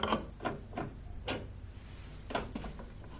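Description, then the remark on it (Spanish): A bathroom faucet handle is turned repeatedly with no water coming out: a handful of short, dry metallic creaks and clicks, moderately loud, with quiet pauses between them. “Luego lleva los vasos al baño y descubre que no sale agua del grifo.”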